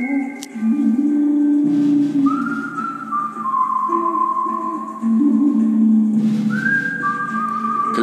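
A whistled western film theme plays over a low sustained backing, the clear, steady whistle carrying a slow melody of long held notes that rise and fall; no one speaks.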